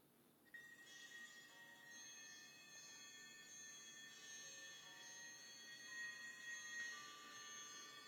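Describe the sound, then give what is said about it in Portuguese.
A clamor of several alarm clocks ringing at once bursts in after a brief pause, a dense metallic jangle of bells that keeps going steadily, with no voices. “barulho de despertador é para lembrar como eu acordei no dia seguinte.”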